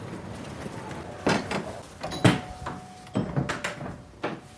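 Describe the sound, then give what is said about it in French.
A shop door is opened and walked through as people enter the shop, with several short knocks and thuds from the handle and frame, over a faint steady hum and some background murmur. “Là, on vient de franchir une porte qui, euh, a été ouverte par euh, bon, nombre de, grands créateurs de l'époque.”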